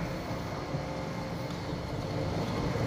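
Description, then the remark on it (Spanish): A steady, low rumbling drone fills the cabin of a car driving back from Acapulco, Mexico, even and continuous throughout, with road and engine noise and no voices. “Y ya aquí vamos de regreso en el este pues ahora sí que en el coche”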